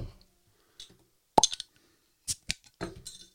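A beer bottle is opened in a studio with a sharp pop and a quick clink of the cap, followed by a few scattered clicks and light handling noises, with no talking.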